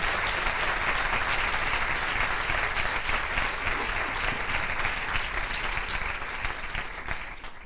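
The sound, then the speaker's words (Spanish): Sustained applause from an audience at the start of a question session, a dense steady clatter of many hands clapping for several seconds before gradually thinning out toward the end. No voices stand out. “Ahora, bueno, un aplauso,”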